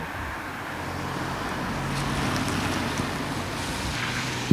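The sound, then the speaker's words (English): Steady whooshing road noise of two cars passing at the same time outside a van, a broad continuous rush that swells slightly midway with low engine rumble, with no one speaking. “Not only did you get that stereo left and right of the van, you got two cars passing at the same time double hearing vision.”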